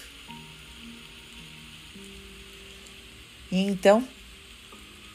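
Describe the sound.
A steady, soft hiss of rain runs throughout beneath gentle sustained music notes, with a person briefly speaking near the end.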